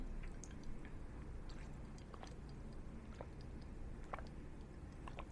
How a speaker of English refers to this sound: Let me take a sip.